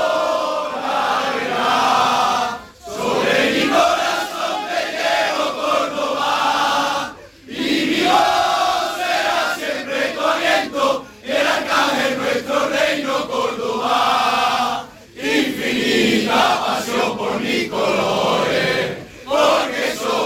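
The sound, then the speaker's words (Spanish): A stadium crowd at Córdoba CF's Estadio El Arcángel sings the club anthem together as a tribute to a young fan, a loud sustained mass of voices with harmonic melody, broken by a few brief pauses between phrases before the singing swells again. “Y me gustaría que, que todo el mundo cantásemos el himno si, si fuese posible.”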